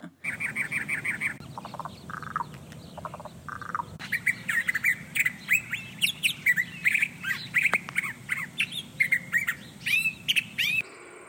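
Backyard birdsong fills the air, with repeated chirps and squawky calls from several birds overlapping in quick, busy bursts, steady against a low background hum, no voices.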